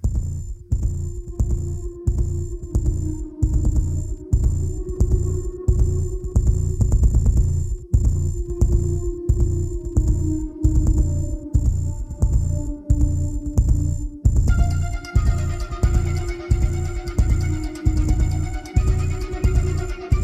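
A heavy metal song plays loud, with a pounding, steady drum beat under thick distorted guitars; the sound grows brighter and denser toward the end, with no talking over it.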